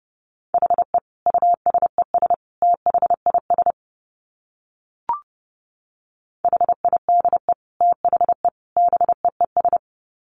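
Morse code sent at about 30 words per minute: a single steady mid-pitched tone keyed rapidly into dots and dashes, in two runs separated by a pause marked by a brief click.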